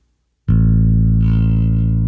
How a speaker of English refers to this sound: Now, turn the compressor off and let's hear the difference between the sounds. Okay, here, so here is, you're going to hear, uh, this is compressor off. I'm going to let the note ring and then we're going to turn it on.